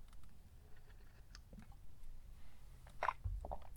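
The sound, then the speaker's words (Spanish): Quiet mouth sounds of someone sipping coffee: soft wet smacks and small clicks, then a distinct gulping swallow near the end, with no talking. “Pausa para trago de café.”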